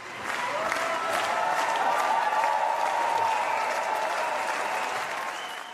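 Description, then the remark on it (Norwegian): A large crowd of Germany's Greens applauds its nominees for the EU election, dense clapping holding at an even, loud level throughout, with a few faint whistles or cheers rising above the clatter before it tapers slightly at the end. “Men uansett, nå er det valg, og begeistringen er stor blant De grønne i Tyskland, som klapper fram sine nominerte til EU-valget.”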